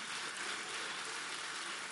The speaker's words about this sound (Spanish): Así que déle un aplauso al alfarero divino